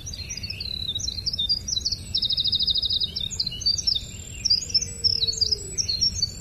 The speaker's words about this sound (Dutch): Dit is bijvoorbeeld een winterkoninkje. Dus een van mijn favorieten. Ontzettend complexe zang. Dat horen we als het winterkoninkje gewoon horen zingen. Gewoon als je op een tak zit.